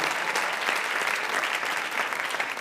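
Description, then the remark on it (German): Steady, sustained applause from an audience for the band at a church service, a dense wash of many hands clapping at an even loudness throughout, with no voices standing out above it. “Und kommt, gebt der Band nochmal einen richtigen Applaus.”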